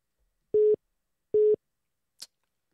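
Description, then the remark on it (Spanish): A telephone line gives two short, loud, steady beeps of a busy tone after a call is cut off, evenly spaced, followed by a faint brief click. Nobody speaks. “¿se cortó o qué?”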